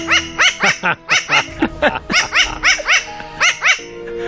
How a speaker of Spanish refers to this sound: Esto es un cuervo muy especial, Esto, esto es un tipo de córvido, bueno, es concretamente un cuerpo de Nueva Caledonia.